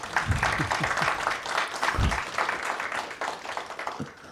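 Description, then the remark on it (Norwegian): An audience at a festival applauds to welcome authors Tor Gotaas and Marius Nergård Pettersen, a dense wash of many hands clapping that carries steadily for several seconds, with a few brief voice-like bursts low in the mix. “Går an å gi dem en applaus òg?”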